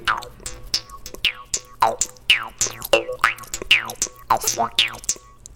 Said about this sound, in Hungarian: használják a dorombot, de kitaláltam hozzá egy ilyen tompitot. És ez nem, nem csípi be a nyelved? Nem. Bleh, bleh mint valami, nem tudom, bugyborékoló mocsári béka.